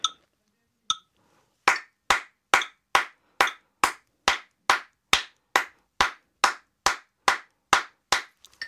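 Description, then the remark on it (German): Crisp hand claps in a steady, even rhythm, about two per second after a couple of scattered opening claps, each sharp and bright with a quick decay, no talking. The claps are a binary rhythm of eighth notes within the quarter notes, at a tempo of 70 beats per minute. “Ich klatsche mal den binären Rhythmus, also die, jeweils die Achtel in die Viertel rein.”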